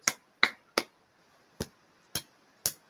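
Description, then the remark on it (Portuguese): Six crisp finger snaps made by hand to tap out Morse code, clearly audible, in an uneven pattern: three quick snaps, a pause, then three more spaced apart. “tentativa ridícula aqui de tentar fazer código Morse aqui com a mão.”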